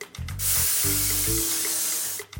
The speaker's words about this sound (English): So this is where your two Ziploc bags come in. So using a pair of scissors, cut the two seams on either side of the Ziploc bag so just the bottom stays intact. We're gonna open that bag like a book and spray the inside with vegetable oil spray.